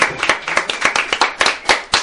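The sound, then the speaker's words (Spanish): An audience claps steadily, many hands blending into dense, crackling applause that stays loud for the whole short stretch, with no voices standing out. “Un aplauso también para ustedes.”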